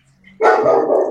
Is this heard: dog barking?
yes